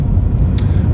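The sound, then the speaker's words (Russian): Steady low road rumble from inside a moving car on a day of minus 15 degrees, a dense constant drone with a brief faint high hiss partway through, no voices. “Из-за этого, блядь, не люблю, когда вот шумит что-то в машине.”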